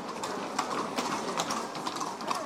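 Horse-drawn wagons carrying men and women in traditional festival costumes clip-clop past one after another at a steady, uneven rhythm of hoofbeats, with a busy outdoor crowd murmur beneath.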